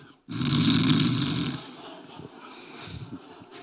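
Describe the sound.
A voice imitates a woman snoring as she falls asleep sitting at the front in church: a loud, rasping snore in one long drawn-out breath, followed by softer, fluttering snorting sounds that trail off.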